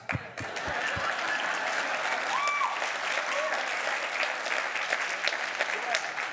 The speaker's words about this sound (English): Uh huh, three claps.